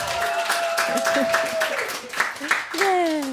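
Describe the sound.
An audience in the dining hall of Fountain House, where a local radio show is broadcast, applauds with steady, dense clapping, while sustained whistles and voices cheer over the top throughout the brief burst.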